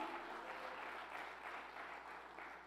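A crowd gives a loud round of applause to the Lord during a sermon, clapping steadily and loudly, a dense, sustained wash of applause from many hands for a few seconds with no voices standing out.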